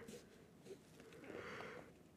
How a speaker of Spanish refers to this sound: ¡Ah! Ay, su puta madre, ¿por qué bostezo tanto? Este... a ah, eso porque estoy tomando frío, güey, yo creo, que no sé.